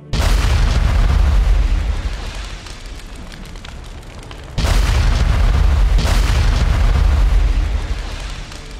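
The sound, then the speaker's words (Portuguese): Three loud explosions of something wooden, each a sharp burst trailing into a heavy, rumbling roar; the first fades after about two seconds, then two more blasts follow close together. “Como se alguma coisa tivesse estourado, como se alguma coisa feita de madeira tivesse explodido de dentro para fora ou de fora para dentro, tanto faz.”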